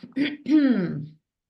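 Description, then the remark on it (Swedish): A single throat clearing: a short rough catch followed by a longer voiced, downward-sliding grunt, heard on its own without other talk. “Harkla.”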